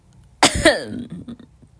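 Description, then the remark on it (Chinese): A pair of sharp, harsh coughs in quick succession, the second slightly rougher, followed by a brief breathy tail and faint throat sounds, from a person who coughs after talking too much. “对，这我说多了咳嗽”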